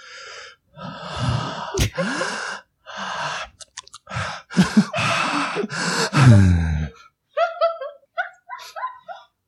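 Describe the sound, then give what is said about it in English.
Heavy, raspy breathing right up against the microphone, a run of loud huffing gasps and snorts, followed by a few quick, thin wheezy breaths trailing off at the end. “I'm gonna enhance this particular breathing.”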